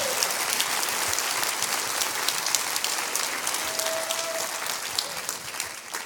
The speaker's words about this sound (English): Let's give these guys a great hand over here. I love these guys.